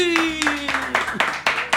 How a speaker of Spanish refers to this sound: JC. Un aplauso para JC.